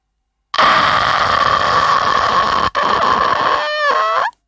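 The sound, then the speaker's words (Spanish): A person imitates the sound a ghost child makes just before appearing in a horror film: a loud, raspy rattling croak held for several seconds, with one brief break, ending in a wavering, warbling pitch. “que es un sonido que hacía el nene cuando estaba a punto de aparecer, que era el siguiente.”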